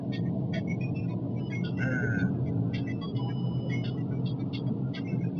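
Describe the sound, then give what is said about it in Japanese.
Steady, loud low rumble of car tires rolling over a rough, bumpy stretch of National Route 9, a busy two-lane road, heard from inside a car driving from Yonago, Japan, toward Shimane Prefecture, with a constant droning roar and faint higher rattles throughout. “で、結構車の通りは多いので、もこう道路がガタガタしております。皆さんにはどのように音が入ってるんですかこのタイヤの音のガタガタが入ってるのかな”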